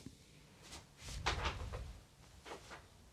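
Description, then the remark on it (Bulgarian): A cat making noise: a few soft, scratchy rustling and knocking bursts spread across a few seconds, fairly quiet and irregular, with no voices. “Котката създава шум, да я махна ли?”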